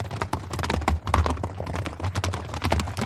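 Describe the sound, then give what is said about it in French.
Horse hooves clip-clop in a brisk, steady rhythm, fairly loud, with a low rumbling hum underneath and no voices. “Un soir d'été, alors qu'il se promène à cheval avec Uther au sommet d'une immense falaise, les deux hommes voient un étrange nuage en forme de dragon apparaître à l'horizon.”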